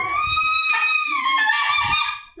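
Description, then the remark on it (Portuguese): A female dog named Meg howls as if singing opera, one long, wavering, sing-song note that slides slightly in pitch, loud, with a few soft low thumps underneath. “Gente, minha cachorra canta ópera.”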